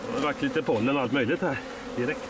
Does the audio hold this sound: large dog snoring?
no